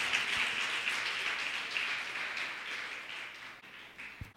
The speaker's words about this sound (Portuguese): Você pode aplaudir ao Senhor, glória a Deus.